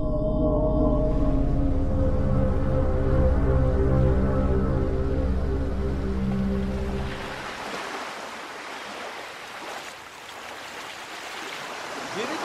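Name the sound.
sea waves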